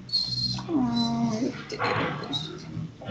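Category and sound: animal, dog whimpering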